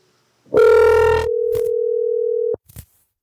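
Telephone call tones: a harsh, buzzy burst gives way to a steady mid-pitched tone that holds for about two seconds, then cuts off with a click, followed by a few faint clicks.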